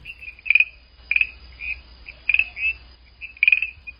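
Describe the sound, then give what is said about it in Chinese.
A frog's ordinary calling: bright, high chirping trills repeated in short bursts about once a second, with softer single chirps between them and no voices. “你可以听看看，一般时候青蛙是这样叫的。”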